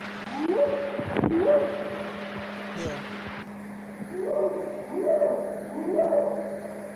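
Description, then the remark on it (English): A series of about four rising, hooting whoop calls, from a purported Bigfoot recording supposedly made in the Sierra Nevada in the 1970s or 80s, rings out in bursts over a steady low hum and hiss, like an old field recording; no one speaks. “You hear the whooping?”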